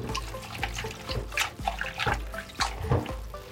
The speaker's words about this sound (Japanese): まずよく水洗いですよねでわあ水洗いしただけでね水がね赤くなってきましたもったいないような気がします